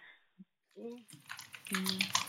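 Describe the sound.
Water runs steadily in a bathroom, a soft hissing wash that starts partway through and continues beneath people talking, fairly faint and slightly distant.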